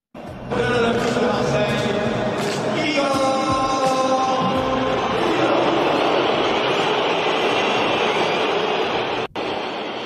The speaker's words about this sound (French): Et ouais, Tudor sifflé au Vélodrome.